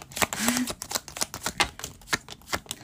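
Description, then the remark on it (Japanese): Tarot cards are shuffled and drawn for a one- or two-card reading, a quick run of crisp, irregular papery snaps and flicks that continues for about three seconds, with a brief low murmur early on; the cards drawn are the Sun reversed and the Two of Pentacles reversed. “1枚引きというか2枚引きというか、やっていきたいと思います。”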